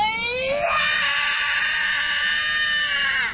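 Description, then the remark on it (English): A child in a played video clip lets out one long, loud, high-pitched scream that rises sharply at the start and holds steady for about three seconds before cutting off abruptly. “He opens his mouth and just screams, and then he closes his mouth and then just smiles and looks forward again.”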